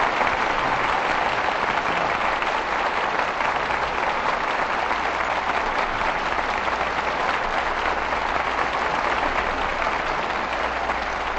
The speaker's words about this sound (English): Your applause calls tonight's stars back to the footlights. Here they are for a curtain call Bing Crosby and Ann Blyth.